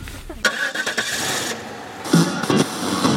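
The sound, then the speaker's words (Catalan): A car engine cranks with a sharp mechanical burst, sputters, then catches and settles into a steady mid-pitched idle hum, with a brief rise in revving near the end, as a three-hour drive to Gallocanta begins. “ja som al cotxe.”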